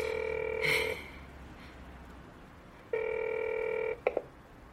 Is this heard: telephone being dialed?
yes